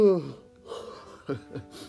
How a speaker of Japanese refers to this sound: すいませんねあくびばっかりね